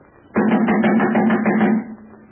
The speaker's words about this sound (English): Listen to this. I'll just take this stick, two of them, and slap them against the door like this.